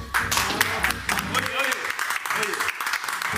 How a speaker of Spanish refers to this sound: Muy bien, señores. Bye bye. Vamos a despedirnos con un gran aplauso.